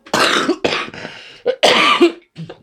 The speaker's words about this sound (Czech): Omlouvám se. Ne, to je kutnohorský kašel. To, lidi mě mají za anděla, ale já jsem anděl, který kouří, jo, takže jo, to je moje...